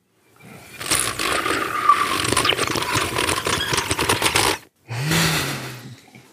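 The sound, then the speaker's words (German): Someone blows across an open cola can like a flute, making a breathy, hollow hoot. One long rough burst is followed after a brief pause by a shorter, steadier low tone, fairly loud. “Er flötet wie ein Virtuose in seine Cola-Dose.”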